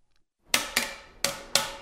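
Four sharp wooden knocks of a cane banging on a desk, arriving in two pairs with a brief pause between, each a bright percussive crack that rings out briefly. No voices.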